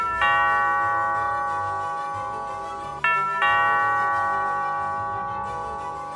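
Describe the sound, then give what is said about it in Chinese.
A doorbell beside the main gate of a pink castle with heart-shaped roofs chimes with a bright, bell-like tone that rings out and slowly fades, then sounds again twice in quick succession, each note sustaining steadily. No one speaks. “咦，城堡的大门旁边有一个门铃哎，我来按按看好了。”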